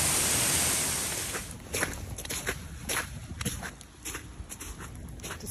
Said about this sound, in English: Yep, it's raining. But then we got this. That is hailstones, if you're listening to it. So heavy, it looks like snow.